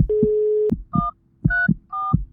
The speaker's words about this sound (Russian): Слышен звук вызова.